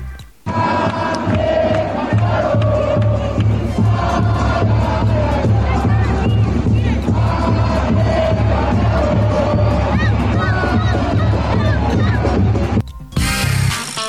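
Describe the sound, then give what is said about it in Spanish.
More than 10,000 fans in a huge stadium crowd at the New Camp chant a León player's name in unison, voices rising and falling in a steady rhythmic chant that fills the space loudly for over ten seconds before cutting off abruptly. “Desde el primer instante, más de 10.000 aficionados se entregaron al principito y comenzaron a corear su nombre.”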